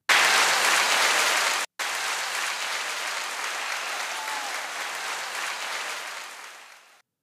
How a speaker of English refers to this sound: Let's see if the technology worked right. There was some hand claps there.